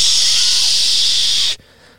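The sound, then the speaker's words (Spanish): A voice imitates the hiss of static on a television left on with no signal: a steady, bright, breathy noise held for about a second and a half, then cut off abruptly into near silence. “Sin señal ya. Sí, pero, pero tiene un nombre. estática.”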